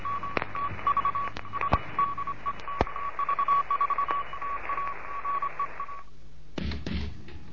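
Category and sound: signal or alarm, morse code tones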